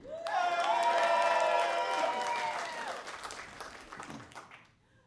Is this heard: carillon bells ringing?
no